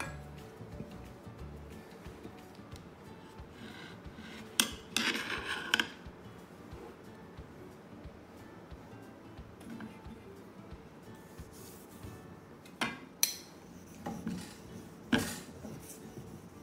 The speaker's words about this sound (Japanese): まあ、包丁の研ぐところなんかお見せしなくてもいいのでしょうが、えー、まあ、全体の流れとしてどのぐらい実際にどのくらいの時間を使っているかを見ていただくにはいいかなと思いますのでカットせずにやっていきます